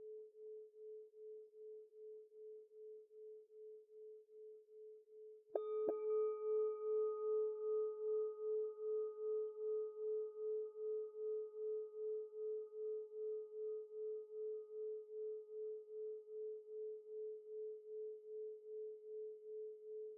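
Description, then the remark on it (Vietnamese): A meditation bell already hums with a slow wavering pulse, then is struck clearly once; its bright overtones fade while the deep, beating tone keeps ringing on its own, with no voices. “tiếp tục để cho tiếng chuông ngừng vang”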